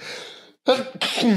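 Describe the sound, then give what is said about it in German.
A single sneeze: a breathy intake, a brief pause, then a loud, explosive voiced burst that trails off quickly, with no talking around it. “Gesundheit, mein Lieber.”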